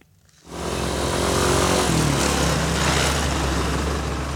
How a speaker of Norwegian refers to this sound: Køen av motorsykler og mopeder er kilometerlang foran en bensinstasjon her i byen San Cristobal i det vestlige Venezuela.